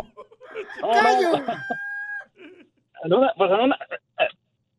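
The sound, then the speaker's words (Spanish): A loud rooster crow sound effect rings out once, rising and then trailing off into a long held note, followed by a short burst of someone talking. “¡Pela! ¡Gallo!”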